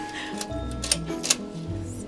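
A key works a door lock: two sharp metallic clicks about half a second apart, over soft low rustling and handling noise.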